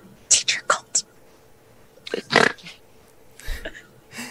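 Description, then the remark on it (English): A voice quietly imitates hissing: four short, breathy hisses in quick succession, then a few softer whispered bursts after a pause, all hushed. “very very quietly hiss”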